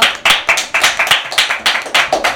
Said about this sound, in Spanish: Por favor, un aplauso.